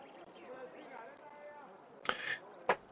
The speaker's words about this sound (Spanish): De su escritorio abre un cajoncito y pueden escuchar cómo mueve algunas monedas y les entrega a cada uno cuatro piezas de plata.